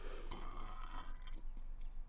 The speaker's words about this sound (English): That was a vanilla coke burp if ever I've heard one.